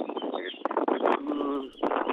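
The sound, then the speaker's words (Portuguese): A caller's voice over a narrow, tinny phone line, heavily buffeted by rough, gusting wind noise that roars and crackles continuously under and between the words. “íamos pedir, se possível, que fugisse um pouco do vento para ser possível eh, percebermos ah, o que ah, está a tá dizer.”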